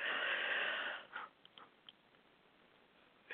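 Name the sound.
big yawn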